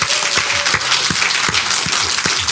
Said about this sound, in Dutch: Mag ik een applaus voor